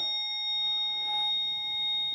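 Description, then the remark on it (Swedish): An old, brown, rusty reception bell that barely works, in the reception of a castle, gives a single ding, its thin metallic tone and overtones hanging steadily for a couple of seconds at a fairly quiet level, with no talking. “Brun, rostig gammal ringklocka som knappt funkar.”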